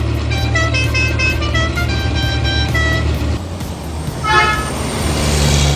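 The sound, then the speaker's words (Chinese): A concrete mixer truck's horn honks in a quick run of bright, high toots over a steady low engine rumble, then pauses before one last short honk. “混凝土半合车脑筋动得快，叭叭叭，喇叭响起来。”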